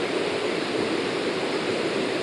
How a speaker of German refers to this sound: Könnte jetzt auch ein Wasserfilm sein. Also es ist ein Rauschgenerator, weil es jetzt muss glaube ich gar nicht mal was bemüht werden.